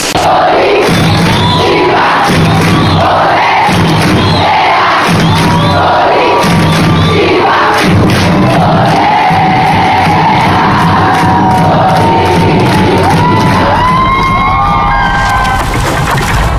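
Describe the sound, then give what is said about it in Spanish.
A large stadium crowd of nearly a thousand women and children chants loudly in rhythmic, rising phrases, many high voices blending together with cheers and shouts, filling the whole stretch without a break. “De piel chinita, casi mil mujeres y niños hicieron temblar al estadio, presumió el Curitiba en sus redes sociales.”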